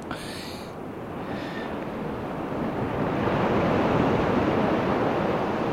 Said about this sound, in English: Alexa, play ocean sounds for 30 seconds.